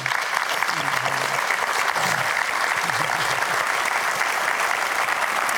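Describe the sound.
A large audience claps steadily and loudly for several seconds to applaud the life of Peter Pretorius, a dense, continuous wash of applause with faint voices murmuring underneath.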